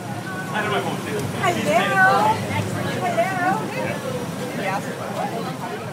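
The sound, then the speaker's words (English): Several people (mayors, city councillors, developers and planners) chatter at once inside a moving city bus in Edmonton on an unseasonably hot June day, their overlapping voices riding over a steady low engine rumble and the constant whoosh of air conditioning blasting. “It's an unseasonably hot June day in Edmonton, and the air conditioning is blasting on a city bus reserved just for us.”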